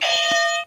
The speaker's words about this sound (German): dazu habe ich wieder die Buzzer mitgebracht